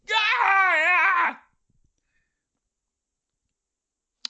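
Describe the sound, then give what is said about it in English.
A single loud, sustained scream with a wavering pitch, voiced by a person imitating a woman screaming in her sleep in the middle of the night, lasting just over a second and then cutting off into silence. “She has dreams about snakes, and uh, in the middle of the night, she just screamed in her sleep like not like "Haw, haw, haw," but like I mean middle of the night just”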